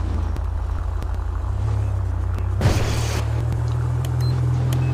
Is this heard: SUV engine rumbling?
yes